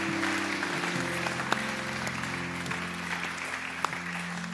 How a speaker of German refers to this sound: Hey, nochmal einen Applaus. So cool. Hammer.